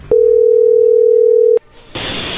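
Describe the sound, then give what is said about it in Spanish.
A phone call's ringing tone as a call is placed: one steady, low-pitched electronic tone holding for about a second and a half, then cutting off with a click, followed by a brief hush and a burst of line hiss. “A ver, vamos a llamarle a ver qué sucede”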